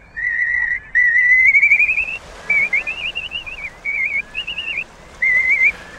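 Slender-billed curlew calls: clear, loud whistles, first a long rising note, then a string of shorter warbling phrases with brief gaps, over a faint steady background hiss.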